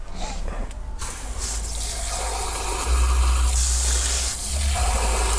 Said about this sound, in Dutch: Moet ik die, iets... die glazen spoelen. Binnen? Nee, doe maar hier.